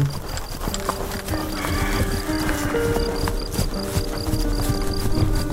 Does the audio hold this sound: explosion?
no